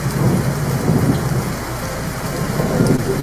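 Steady rain pours down with a low, rolling rumble of thunder underneath, a dense continuous wash of sound with no voices, holding level before cutting off abruptly.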